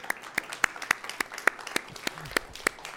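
Audience applause made of distinct, crisp claps in a fairly steady, brisk rhythm, moderately loud and sparse enough that individual hand claps stand out, with a faint murmur beneath.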